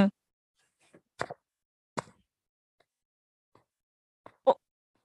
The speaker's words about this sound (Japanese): めっちゃ出した今、今、あ、今のあの空気砲みたいな音か。そうそう、これが、私が出せるおなら、そう、口お尻で息ができるんだよ、私。